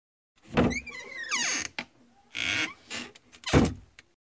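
A door is handled and pushed shut: a creaking swing, a rattling scrape, then a solid thump as it closes. No voices are heard.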